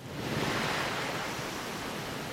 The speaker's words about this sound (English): we have like this um, ocean wave sound that mm-hmm. starts off the album.